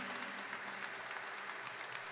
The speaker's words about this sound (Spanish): Les pido por favor otra vez un aplauso para